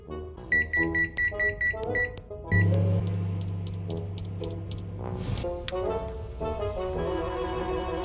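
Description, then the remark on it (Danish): A run of short electronic beeps, then a microwave oven's steady low hum for a few seconds under light background music in a video game trailer, which swells into a fuller tune as the hum ends. “Ja, øh, det man kan høre her, det er jo bare sådan god background musik, og man kan også høre en mikroovn, fordi en af, en af ens første quest, det er, og nu er du skudt selvfølgelig, men ens første quest, er simpelthen bare, at man skal varme”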